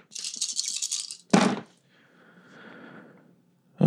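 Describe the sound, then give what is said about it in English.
Dice, rolled as the damage dice for a Shadow Blade attack, rattle rapidly in a shaker or hand for about a second, then a sharp clatter as they spill out, followed by a softer rolling tumble that fades, and another rattle starting at the end. “So just the damage dice for Shadow Blade.”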